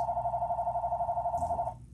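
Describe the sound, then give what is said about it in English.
A telephone rings in a closed restaurant with a steady electronic warbling trill for nearly two seconds and then cuts off, heard fairly clearly over a low background hum with no one talking. “I'm gonna ignore that phone. Whoever calling it, clearly the restaurant is closed.”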